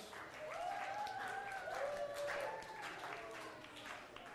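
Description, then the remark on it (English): An audience applauds steadily for several seconds for three volunteers called up, a dense wash of many hands clapping at once, with a few voices calling out over the noise. “Give them a, give them a round of applause.”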